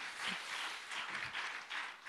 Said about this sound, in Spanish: Lo estamos haciendo para el Rey de Reyes y Señor de Señor. Denle un fuerte aplauso al Señor Jesús.